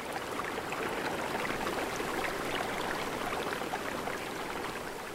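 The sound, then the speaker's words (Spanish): Steady, continuous rush of splashing water from a small waterfall in southern Mexico, a dense even hiss with no pauses, moderately loud, with no voices. “Si te detienes a apreciar la belleza de una pequeña cascada al sur de México, a través del rocío podrías tal vez distinguir la entrada a una cueva.”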